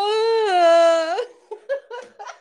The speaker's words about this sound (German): Also, und dieses Weinen war für mich dermaßen rausgepresst.